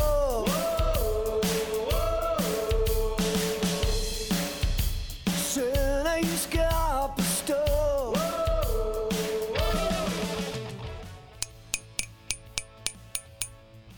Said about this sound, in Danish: Ja, det er lyden af et trofæ. Det er det nemlig. Og det er lyden af Skala FM-koppen.